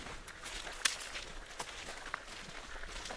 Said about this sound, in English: Immediately, I hear the other participants moving, falling into their own walking patterns. I hear rhythms of feet shuffling, jackets swishing, gravel and coal underfoot, an occasional twig snap.